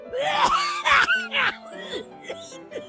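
A loud run of harsh coughing bursts, about three in quick succession, mixed with strained groaning and throaty vocal noises that trail off into softer wheezy sounds.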